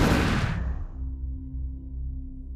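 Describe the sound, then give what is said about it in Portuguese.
A loud explosion bursts out at once, its sharp blast fading within a second into a deep, steady rumble that lingers to the end with no voices. “Um clarão que se tornou uma explosão.”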